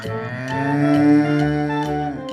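A cow moos once in a long, drawn-out, loud call that swells slightly in the middle and holds steady for a couple of seconds, with nothing else around it.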